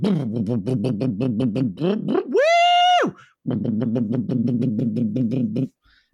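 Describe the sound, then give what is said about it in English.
A voice imitates an echoing car race: a buzzing, pulsing engine drone, then a rising whine that holds high and drops, then more rapid revving. Fairly loud, with no speech. “I'd say that's the sound of a car race.”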